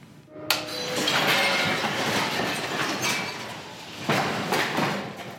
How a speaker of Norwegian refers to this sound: Sånn hørtes det ut da Oslo Plazas møbler fløy veggimellom i storfilmen 'Skjelvet'. Men katastrofefilmen ble ikke filmet i Norge. I stedet bygde produsentene opp kulissene i Tsjekkia.